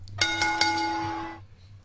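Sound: wrestling ring bell ringing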